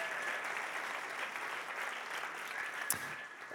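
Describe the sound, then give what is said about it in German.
An audience applauds steadily for the leaders of Momentum College, a dense wash of clapping hands at moderate volume, with no voices over it. “Und ähm, hey, komm mal, den ganzen Momentum College, den Leitern, ähm, komm, wir geben denen auch nochmal einen riesen Applaus, die sind der absolute Hammer.”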